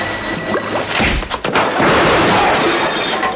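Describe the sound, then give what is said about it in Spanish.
A punch lands with a thud, then a man is thrown onto a table holding a distillery in a loud, jangling crash of breaking glass that keeps rattling and clattering for seconds. No one speaks. “Le da un puñetazo y le tira sobre la mesa donde tenía la destilería.”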